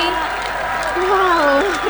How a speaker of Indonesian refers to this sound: yang tepuk tangan ya? ya penonton kita.